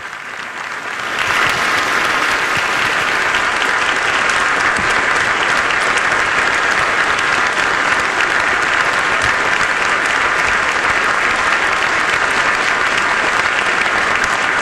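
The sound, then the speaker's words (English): A large crowd breaks into thunderous, unanimous applause after a speech by Volodymyr Zelensky, swelling within the first second and holding steady as a dense wall of clapping that goes on for quite some time, with no voices over it. “As you might expect, thunderous, unanimous applause for the speech”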